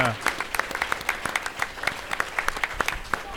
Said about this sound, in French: Je pense qu'elle mérite une bonne main d'applaudissements.